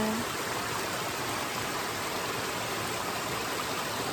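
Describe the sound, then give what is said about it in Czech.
A mountain stream in the mountains rushes steadily, a dense, continuous hiss of flowing water with no pauses and no voices. “je to tady ten nádherný potok horský.”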